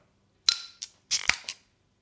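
A bottle of Rothaus Tannenzäpfle alcohol-free beer being opened: a quick run of sharp clicks and pops, with a brief hiss between them, then quiet. No one speaks.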